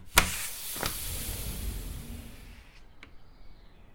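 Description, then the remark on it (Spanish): A sharp mechanical click starts a motorized whir that runs for about two seconds as a house's automated system, given a spoken command, slides a large window open to the outside, followed by a couple of faint clicks as it settles. “Abrí ventanal hacia el exterior.”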